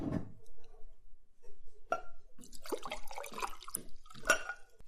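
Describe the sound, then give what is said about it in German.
Water is poured into a glass, a short gurgling splash with a few light clinks of glass, starting after a brief pause and lasting a couple of seconds. “Ich brauche nur mal ein Glas Wasser.”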